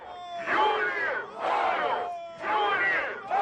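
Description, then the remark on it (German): A crowd of a few hundred protesters outside the city prison in Ukraine chants "Freedom for Julia, freedom for Ukraine" in unison, loud rhythmic bursts of many voices repeating roughly once a second with brief dips between, no single voice standing out. “Freiheit für Julia rufen sie, Freiheit für die Ukraine.”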